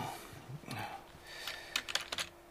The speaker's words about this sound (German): Ah, ich kann dieses Tippen nicht leiden. Eine E-Mail zu beantworten ist ja schön und gut, aber so viele.